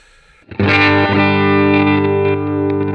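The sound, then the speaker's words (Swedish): A distorted electric guitar chord, played through a Universal Audio Dream pedal used as the amplifier, rings out after a brief quiet moment. It is loud and sustained with a thick, saturated amp tone and a slight shimmer, and is held for a couple of seconds without any voices. “Red Laman in i våran Universal Audio Dream-pedal, som är våran förstärkare helt enkelt.”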